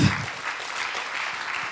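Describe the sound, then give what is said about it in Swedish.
Steady audience applause, a dense wash of many hands clapping at fairly even loudness throughout, with no voices standing out. “Det är värt en applåd.”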